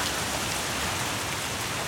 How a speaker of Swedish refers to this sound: Oj, nu börjar det regna